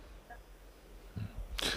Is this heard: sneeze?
yes